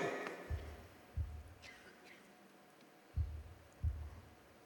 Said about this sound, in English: So the moment your heart stops beating for yourself and starts beating for the Savior, you're a new person. Hear that heartbeat?